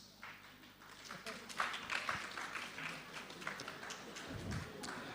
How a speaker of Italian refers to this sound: Anche qui mi interrogo su chi applaude. Immagino che qualcuno che ne ha fatto esperienza, diciamo.